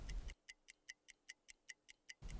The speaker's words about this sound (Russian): сам Тугай слышал, как в жилете его неуклонно шли, откусывая минуты, часы